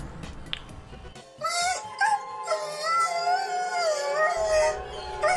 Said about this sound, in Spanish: Es el perro de enfrente que tiene esa triste costumbre.